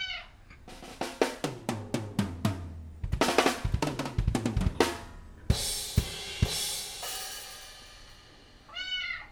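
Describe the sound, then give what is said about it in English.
A kitten named Riley performing a trick mews once, then a run of irregular plinking and clattering hits follows, some ringing briefly, before another short mew at the end. No one speaks. “who's been teaching his kitten Riley to do a pretty special trick, haven't you,”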